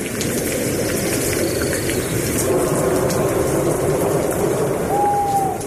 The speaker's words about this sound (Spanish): Pero después vino la lluvia